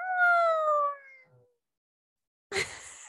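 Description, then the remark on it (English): A person imitates a cat with one drawn-out, falling meow that trails off, then a short silence before a brief burst of voice. “I'm like, why are you meowing?”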